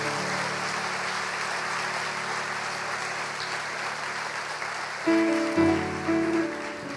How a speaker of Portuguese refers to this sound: Vamos aplaudir bem forte.